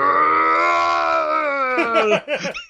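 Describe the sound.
A person imitates the shopkeeper's yell from a scary video game: a long, wobbly, goofy yell that holds a steady pitch for about two seconds, then breaks into choppy, warbling bursts, loud.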